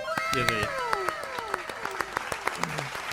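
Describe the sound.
Scattered, uneven clapping from a small group, sharp slaps landing every fraction of a second while voices talk and exclaim over it for a few seconds.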